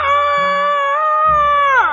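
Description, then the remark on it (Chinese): A person imitates a rooster crowing before dawn in a children's story, one loud, sustained two-second cry that holds a steady, strained pitch and then slides downward at the end. “于是啊，公鸡就每天天不亮就喊起来了。”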